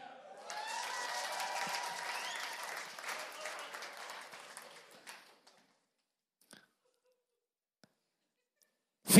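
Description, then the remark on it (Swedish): An audience at Lifeset applauds with a dense, steady patter of clapping and some cheering voices for about five seconds, then the clapping fades out, leaving a few isolated clicks and one sharp knock. “Tack för applåden.”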